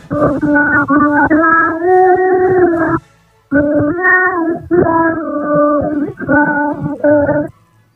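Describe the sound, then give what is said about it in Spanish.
A lone voice sings a slow, sustained French lullaby in a restored late-19th-century recording, with a thin, muffled old-recording tone, holding long wavering notes across two phrases separated by a short pause. “Ya os lo he dicho casi, una nana, una nana en francés que se ha conseguido restaurar, o sea que el sonido también tiene restauración, como en las Reales Academias de Bellas Artes.”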